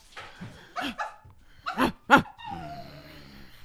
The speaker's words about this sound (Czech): A protože nám již napadl sníh na některých částech České republiky, Vydala jsem se na úplně první letošní závod psích spřeženích. Můžete už pozadí slyšet nedočkavé, nadšené hafance.